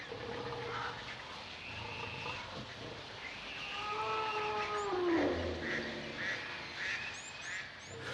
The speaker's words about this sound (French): Les bruits de la jungle, les cris, les chuchotements, les conversations, le brouhaha de la jungle.